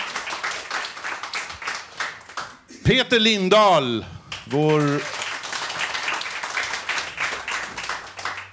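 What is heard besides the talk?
audience applause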